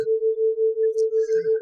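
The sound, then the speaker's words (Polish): A steady, pure binaural beat tone, produced by two tones a few hertz apart, that swells and fades in a smooth, regular wobble about five times a second, heard alone at moderate volume with no voices. “Tu jest jeden dźwięk, tu jest drugi, różniący się tam o e, pewną częstotliwość, o kilka herców, i w efekcie mamy dźwięk, który brzmi mniej więcej tak.”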